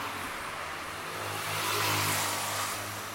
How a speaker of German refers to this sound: Vor der Kathedrale der Millionenstadt ist nicht viel los. Ab und zu fährt ein Auto vorbei.